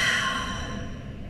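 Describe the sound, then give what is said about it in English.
A van passes by in traffic, its broad rushing rumble loud at first and then steadily fading as it moves off, with no voices present. “Do you hear that van? Here comes another car.”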